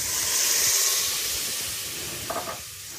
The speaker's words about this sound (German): Jetzt gieße ich einmal kurz mal mit einem Schlückchen Wasser an, damit sich der Satz vom, von dem Speck bisschen anlöst.